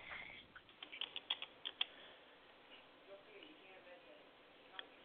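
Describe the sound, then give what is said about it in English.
A quick burst of typing on a computer keyboard, about eight sharp taps in under two seconds, followed by a quieter stretch with faint room noise and one last isolated click. “I can hear you tapping.”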